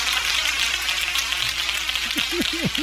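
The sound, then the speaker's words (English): Thin, scattered clapping from a small part of an audience keeps up a steady crackle for about three seconds, and a voice begins speaking over it near the end. “Only the smart people are clapping.”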